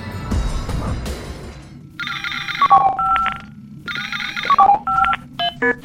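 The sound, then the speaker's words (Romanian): An electronic incoming-call ring sounds in two repeated bursts of bright, warbling tones, loud, following a short rumble of noise at the start. “S-a lansat un apel galactic. Să-l ascultăm!”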